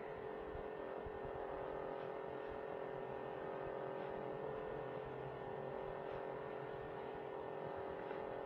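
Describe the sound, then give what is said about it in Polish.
Steady outdoor ambience on a balcony, recorded on a cassette in an amateur dictaphone: a continuous low hum and traffic rumble, fairly quiet and unbroken, with faint periodic ticks and no voices, plus noise from the dictaphone's mechanism. “Teraz, jak Państwo słyszą, włożyłem kasetę tę samą do amatorskiego dyktafonu, także oczywiście jakość jest dużo gorsza, jest szum mechanizmu, także teraz włączyłem, wychodzę na balkon. Już wyszedłem na balkon.”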